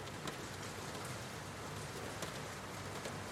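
Steady rain patters against a window in a dense, even hiss, with occasional sharper drops tapping through. Soft and continuous, with no voices.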